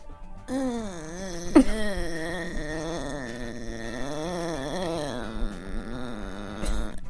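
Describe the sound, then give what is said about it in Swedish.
A person imitates a long, drawn-out exhale blended with a moan that a man makes without knowing it, one continuous voiced groan of about seven seconds with a slowly wavering pitch, fairly loud, with no talking. “är som en lång utandning i kombination med ett stön som sker.”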